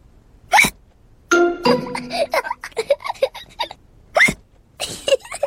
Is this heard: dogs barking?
no